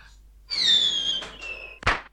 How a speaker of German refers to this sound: Zündet die Knaller-Rakete